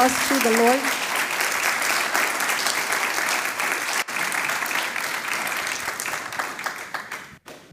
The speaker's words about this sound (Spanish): ¿Puedes darle un fuerte aplauso al Señor?